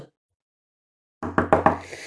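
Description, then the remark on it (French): Three quick knocks on a door, evenly spaced, following a moment of silence, with a low hum sustained underneath. “Toc, toc, toc. C'est nous. Ouvre la porte.”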